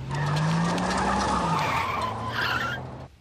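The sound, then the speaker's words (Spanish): A school bus's tires screech loudly for about three seconds over a roaring engine, the harsh skid holding steady before cutting off abruptly. “Tengo 100 años y conduzco un autobús escolar.”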